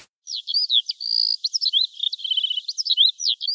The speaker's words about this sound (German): Diese Frühlingskulisse können alle mit gesunden Ohren problemlos wahrnehmen.